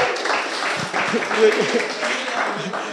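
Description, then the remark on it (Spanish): A church audience applauding steadily for a few seconds for those who arrived on time, a dense wash of many hands clapping at once, mixed with a murmur of voices underneath. “Pero vamos a darle un fuerte aplauso a todos los puntuales, por favor”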